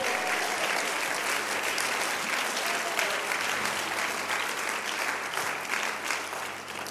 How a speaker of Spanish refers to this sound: Alabado sea el Señor. Dele un aplauso al Señor de la gloria.